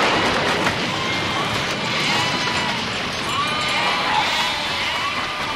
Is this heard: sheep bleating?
yes